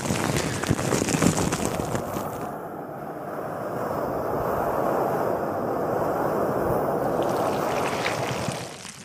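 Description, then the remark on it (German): Water bubbling and fizzing while held close to a microphone, a dense, steady crackly rush with no pauses for the whole stretch, loud and close, with no one talking. “Ich beschreibe mal, was man hier im Video sehen wird, und zwar Rasierschaum auf dem Mikrofon, blubberndes Wasser, das nah daran gehalten wird auch Schwämme und Pinsel, die einfach ganz zärtlich darüber gerieben werden.”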